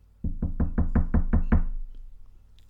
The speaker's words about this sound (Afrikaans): Hy klop aan die deur en wag 'n bietjie.